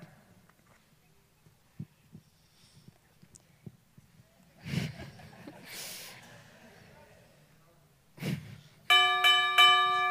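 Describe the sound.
After a stretch of quiet shuffling, breathy snorts and faint muffled voices, a loud bell at a house brightly decorated for Christmas rings in a few quick bursts at the very end.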